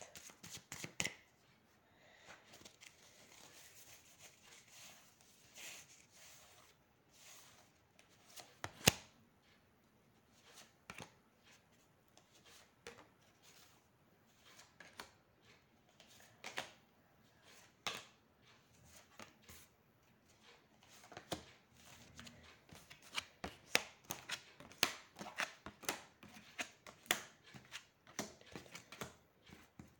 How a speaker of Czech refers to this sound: A já už se dívám na vaše fotky, míchám u toho karty a podíváme se teda spolu, co nám Tarot řekne o tomto partnerském stavu.